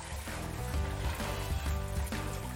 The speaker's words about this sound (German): Also ich habe einen vorgemacht, da, ist, da war jetzt schon 24 Stunden im Kühlschrank. Da merken Sie, Wasser ist rausgekommen vom Fisch. Das kann man jetzt abwaschen mit kaltem Wasser.